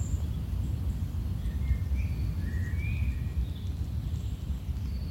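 Faint, scattered bird chirps in the background over a steady, heavy low rumble like wind in a forest, with no one speaking.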